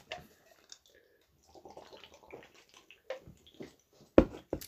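Someone takes a big swig of beer after a toast: soft wet slurping sounds, then a few sharp, louder gulps near the end. No one speaks.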